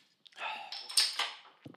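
A beer bottle is opened: a short click, then a rush of fizzing hiss that peaks in a sharp pop before fading, with a faint knock at the end.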